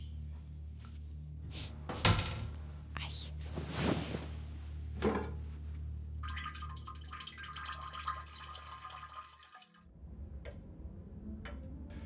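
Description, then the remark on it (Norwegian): A few knocks and clunks, then a shower starts running with a steady, hissing spray for several seconds before cutting off abruptly, with no one talking. “Dusj.”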